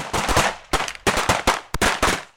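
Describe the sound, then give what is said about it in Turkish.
A rapid volley of pistol gunfire, two men drawing pistols from their waists and firing at people in front of a real estate office: roughly eight loud, sharp cracks fired in quick, uneven bursts with brief gaps between them, and no voices. “Deniz Sarıyan ve Osman Turan silahlarını bellerinden çekti ve emlakçının önündekilere doğru ateş açtılar.”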